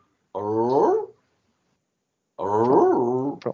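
A dog lets out two drawn-out, grumbling growls, each lasting about a second, separated by a short silence. No one speaks.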